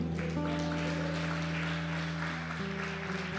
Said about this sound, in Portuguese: Quem crê, recebe, diz amém e aplaude ao Senhor.